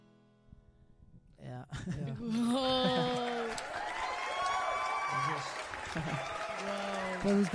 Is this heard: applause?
yes